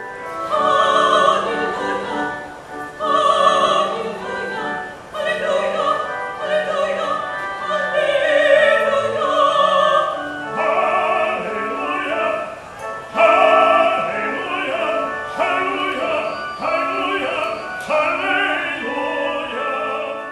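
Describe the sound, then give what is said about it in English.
A choir sings the Hallelujah Chorus from Handel's 1741 oratorio Messiah in a shopping-centre food court in Welland, Ontario, in 2010, many voices joined in rich sustained harmonies, loud and steady throughout with short breaks between the bold, repeated phrases. “Of course, the singers are performing what may be the most famous piece of classical music of all time the Hallelujah Chorus by George Friedrich Handel.”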